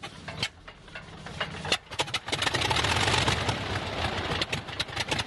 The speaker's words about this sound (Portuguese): Dando partida. Ele, é, o avião ele faz um barulho. Esse avião é chamado no exército soviético de máquina de costura. Vocês viram que não é à toa. o, barulho do motor é exatamente igual a uma máquina de costura.